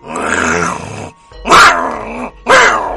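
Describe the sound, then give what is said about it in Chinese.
A storyteller imitates the odd barking of a rural Chinese native dog (Chinese Garden Dog) in a village farmyard with three strained, growling vocal bursts: a long rough one, then two shorter, louder yelps separated by brief pauses. “这狗叫唤就不对音儿，”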